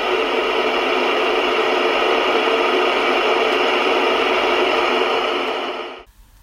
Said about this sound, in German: Weißes Rauschen, Diode GAZ 17 Volt DDR.